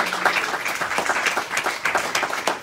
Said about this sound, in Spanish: Dale un aplauso a Dios en esta mañana.